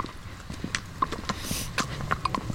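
A horse's hooves clip-clop steadily on a hard surface, a series of sharp knocks in an uneven walking rhythm with some soft background noise.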